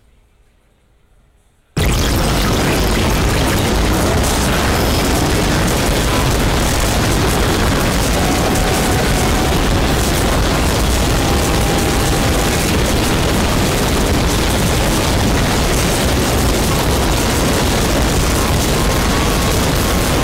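After a short silence, a dense, saturated wall of overlapping electronic music erupts and holds at full loudness, every layer smeared into a roaring, noisy mass with faint tonal lines poking through.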